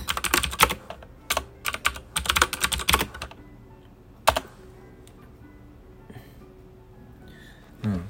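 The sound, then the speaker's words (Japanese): Fast computer keyboard typing in dense bursts of clacking keystrokes as text is entered into a design drawing being revised, pausing briefly, then a single sharp key hit around the midpoint before things go quiet with faint stray taps. “で、これね、気を抜くとね、こう、口を動かしながらキーボードを打ってるとね、あれなんですよ。”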